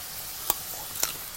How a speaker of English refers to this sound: what i'm going to do now is over the top of the uh, frying pan here using the peeler just to cut off some carrot peels and they go right into the uh, stir fry thing we're doing here